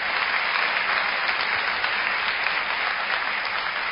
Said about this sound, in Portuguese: Em casa, levanta as duas mãos. E aplauda Ele agora com força e glória. Mais forte ainda.